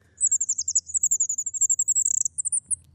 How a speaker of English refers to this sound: It's called an incubation call. She only does it when she's on her own with her eggs. And in fact, we have a recording of a fairy wren incubation call, so you can hear the sorts of thing they're doing.